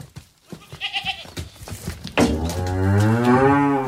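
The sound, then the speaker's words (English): A cow lets out a long, loud, droning moo, rising slightly in pitch, after a couple of seconds of quieter outdoor rustling and faint bird chirps, on land where cows and sheep graze among oak trees around an old stone monastery near Zamora, Spain, in summer 2016. “On a patch of land not far from Spain's border with Portugal, cows and sheep are grazing between the oak trees that surround an old stone monastery.”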